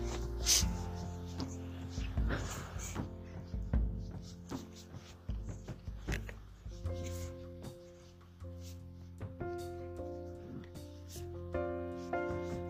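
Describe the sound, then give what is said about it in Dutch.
A freight train rumbles steadily in the background, a heavy low drone with droning metallic tones layered over it, continuous for the whole stretch without fading away. “Wat je hoort op de achtergrond is de trein. Het is meer een goederentrein, dus dat betekent ook dat ik bijna thuis ben.”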